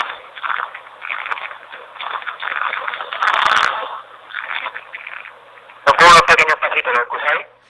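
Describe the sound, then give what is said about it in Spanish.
Footsteps of the person carrying the walkie-talkie come through its tinny channel, a run of muffled thumps and crackles amid hiss and faint indistinct voices, growing louder and more rhythmic near the end. “hemos escuchado algo, pero son tus propios pasos.”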